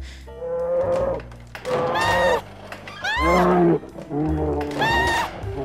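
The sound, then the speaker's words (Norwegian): A white bear roars and growls in four or five loud, drawn-out bursts with rising and falling pitch, filling the whole stretch with only brief pauses between calls. “Ah! En bjørn!”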